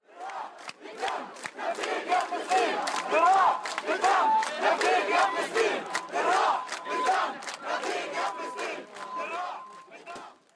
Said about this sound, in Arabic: انطلقت الهتافات والمظاهرة اللي كان فيها قرابة 2000 ل 3000 شخص